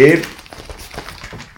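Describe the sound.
Paper crinkles and rustles in a series of short crackling bursts as newspaper pages are turned to page 3 and handled, after a brief voice at the very start.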